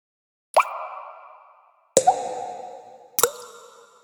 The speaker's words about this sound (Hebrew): אוי, חשב כד צדוק. עכשיו אני מבין. מים נוזלים החוצה מהסדק שלי.